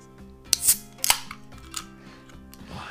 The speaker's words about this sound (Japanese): このマイクねその ASMR 的な要素があるってことに気づいて、ん、ちょっとじゃあ皆さんあの ASMR ってご存知あのよくあの女優さんとかあのいろんな人やってらっしゃる、うん、あの、うんうん、食べる音とかをこう聞かせる